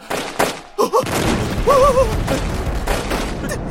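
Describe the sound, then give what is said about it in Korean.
Booming cannon blasts and crackling musket volleys from Japanese forces besieging Dongnae fortress ring out in a dense battle din, with sharp reports near the start and shouting voices layered over the rumble. “왜군이 대포와 조총을 겁먹지 말고 화를 쏘라!”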